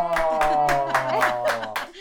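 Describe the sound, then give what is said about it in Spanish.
Steady, rhythmic applause welcoming a guest: about eight sharp hand claps in two seconds, evenly spaced, with a sustained humming tone running underneath. “Aplausos y todo.”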